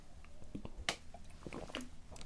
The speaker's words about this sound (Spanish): Voy a tomar un poco de agua, discúlpenme.